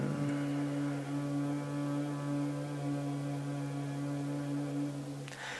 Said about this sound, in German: Dann tief einatmen, Bauch hinaus, Brust hinaus, Lungen wirklich vollständig füllen. Und dann lächelnd vollständig ausatmen, dabei summen.